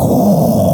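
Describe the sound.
A voice imitates a loud jet roaring overhead, like the jets that always fly over near Williams Gateway Airport, with a short, steady, low rumbling groan that stays at full volume for under a second.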